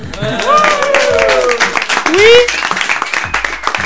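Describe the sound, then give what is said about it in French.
A burst of applause in a studio, dense rapid clapping lasting a few seconds, mixed with cheering and whooping voices rising and falling over the top, for the only woman among the 11 people representing the list. “mais ils ont fini par trouver le studio, un studio où ils sont arrivés en nombre, 11 personnes pour représenter cette première liste, dont la seule personne de la jante féminine, on peut l'applaudir.”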